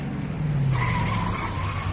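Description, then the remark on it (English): A race car's engine rumbles steadily, then tires squeal sharply as it brakes into the pit stop, the screech holding for over a second over the low motor drone. “Oh, and it looks like Carpenter and Helio are coming in for pit stops too.”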